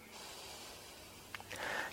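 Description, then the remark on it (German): A long, deep, full breath pushed out through the mouth at the start of a Brahmari pranayama breathing exercise: a steady soft airy hiss lasting over a second, ending in a brief louder rush of air, quiet. “Atme zunächst tief vollständig aus.”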